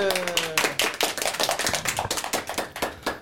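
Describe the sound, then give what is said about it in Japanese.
A small group claps their hands together in a quick, uneven burst of overlapping claps that stays close and steady for a few seconds, with a brief voice at the very start. “皆さん拍手”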